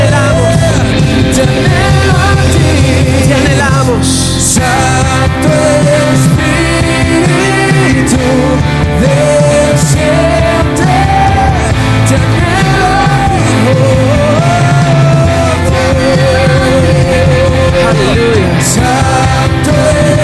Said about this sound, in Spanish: Y si estás de acuerdo conmigo, haz el ruido más fuerte que tengas para nuestro Señor Jesucristo y cantamos una última vez. Aplaude a él, vamos, fuerte.